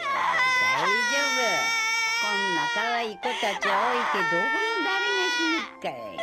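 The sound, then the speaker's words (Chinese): A girl character bursts into loud, wailing tears, a release of emotion after a neighbour grandmother comforts her that her mother will come back; high sobbing cries rise and fall in long drawn-out waves with brief catches of breath between them. “”小玉这时候才哇的一下子情感的一个释放。”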